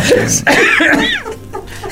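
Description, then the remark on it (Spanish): A loud cough bursts out, followed by a raspy, strained tail as the throat clears, with another rough cough trailing off quickly afterward. “Volvió la tos.”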